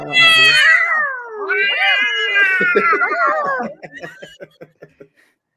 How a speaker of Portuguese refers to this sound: Ó o gato! Ó o gatinho! É gato, papai!